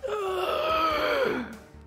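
Eerie moaning and wailing of humanoids, a long drawn-out cry that swells, wavers in pitch, then slides downward and fades after about a second and a half, with no talking; heard where a lift opens onto many flesh-covered walls.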